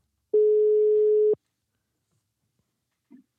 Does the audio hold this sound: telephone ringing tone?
yes